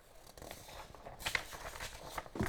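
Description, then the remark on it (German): A dry rustle of a paper page being turned, with a crisp crinkling swish in the middle and a soft flutter as it settles, quiet and on its own. “Umblättern hier”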